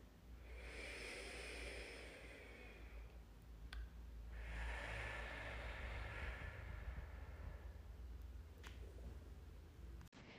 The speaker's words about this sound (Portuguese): A respiração profunda que iremos fazer é como se estivéssemos enchendo um grande balão. Inspiramos pelo nariz e soltamos o ar pela boca.